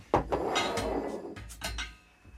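A bottle of Tegernseer Hell beer being opened: a quick run of sharp clicks and rattling scrapes, then a couple of brighter snapping bursts near the end, fairly loud with no voices.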